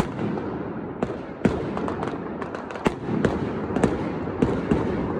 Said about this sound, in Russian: сколько человек, которые смотрели трансляцию, говорят, что за фейерверк, что за салют.